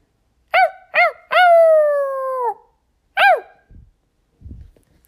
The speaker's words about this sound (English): Somebody else lives in this house. He has a ru- he has rough brown hair and a tail he can wag. All he can say is bow wow or woof woof.